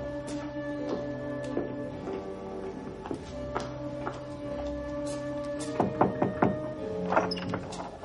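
A few dull knocks on a wooden door, a quick cluster of three near the end and one more shortly after, over soft sustained background music, as Julie, walking down a corridor at night with a candle, knocks on a door.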